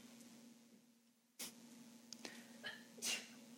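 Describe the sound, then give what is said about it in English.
Two soft sneezes a couple of seconds apart, each a sudden breathy burst, heard fairly quietly over a steady low electrical hum with no talking. “bless you again.”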